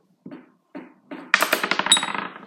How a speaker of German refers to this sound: Was hast du? 14. oh! Du kannst nicht mit dem W4 würfeln